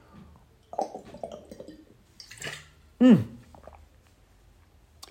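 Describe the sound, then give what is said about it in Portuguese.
A glass bottle of fresh cold water clunks as it's handled in summertime, followed by wet swallowing and a satisfied murmur. Low voices are heard before it. “Jesus, esta garrafa de vidro faz bem barulho.”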